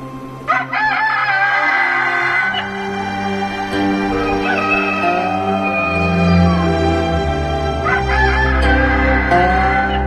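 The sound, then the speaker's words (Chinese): A rooster crows loudly and repeatedly, its long, drawn-out calls filling about ten seconds with strained, harmonic tones. No one speaks. “每当太阳升起，有一座山峰上的几块巨石就变成了一只金光闪闪的雄鸡，它伸着脖子对着天都峰不住地啼叫。”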